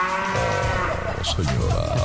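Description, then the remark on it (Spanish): A cow moos loudly, one long, drawn-out low bellow with rich harmonics that fills the whole couple of seconds, with no talking over it. “comiendo la, vaca viva prácticamente con este sonido.”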